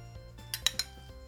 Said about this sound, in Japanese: はい、じゃあね、今日のビール開けて飲んでいきたいと思います。